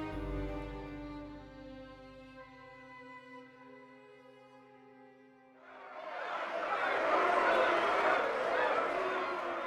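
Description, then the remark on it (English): A steady, layered tonal drone fades out, then a loud, dense crowd of voices erupts, members of parliament in the packed House of Commons jeering and cheering in a continuous raucous roar through the final seconds. “It's packed with members of Parliament. They're jeering, cheering. It's raucous, like a circus.”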